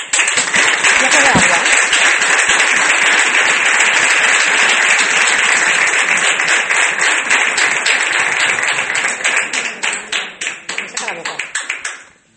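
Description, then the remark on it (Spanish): Sustained audience applause in tribute to Spanish socialist politician Alfredo Pérez Rudacaba, a dense wash of many hands clapping at full volume for about ten seconds, then thinning into scattered individual claps as it dies away. “Un aplauso para él.”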